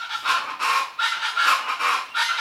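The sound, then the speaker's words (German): Chaco chachalacas, chicken-like birds that live in family groups, calling in a loud, raucous chorus right in front of the speaker, with harsh, scratchy bursts repeating in a steady rhythm about twice a second, and no talking. “Es sind Chaco Chachalakas. Ach so. Das sind so Hühnervögel, die so in Familienverbänden leben”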